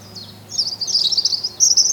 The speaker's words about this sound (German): hallo Vogel. Guck mal, da sitzt er. Wo? Hier vorne auf dem. Ein Rotkehlchen.